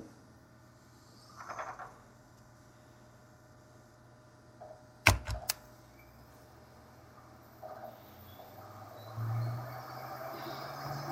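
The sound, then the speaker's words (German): An old disk drive restarting: a steady low mechanical hum, a brief cluster of sharp clicking knocks partway through, then a louder whirring rattle building toward the end. “Hört ihr jetzt, wie das rattert?”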